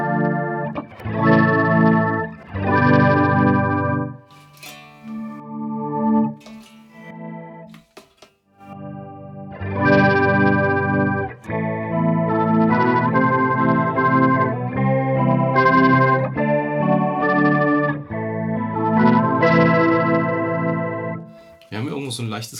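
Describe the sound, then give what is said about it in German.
An electric guitar run through an octave effect, placed before the amp, with the lower and upper octaves turned up and the original signal turned off, gives an organ-like tone, playing full sustained chords in several phrases separated by brief pauses, fairly loud with a slightly gritty, clipping edge. “typische pock sound wäre, wenn du jetzt dann den die untere Oktave und die obere Oktave reindrehst und ja. den, das Originalsound rausdrehst, dann kriegt man diesen orgelmäßigen Sound.”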